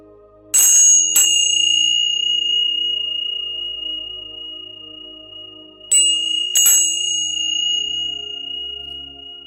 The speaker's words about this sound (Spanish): Les cuento que Anita me regaló estos címbalos hace muchos años.